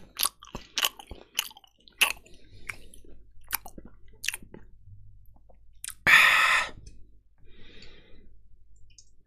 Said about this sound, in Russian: Не чавкай, блин.